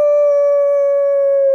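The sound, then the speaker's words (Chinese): A voice imitates a wolf's howl, voicing an old wolf crying out in a story: one loud, sustained "awoo" held at a steady mid pitch with rich harmonics, lasting about a second and a half with no other sounds. “可是这时候，他忽然大叫起来：“ 嗷！”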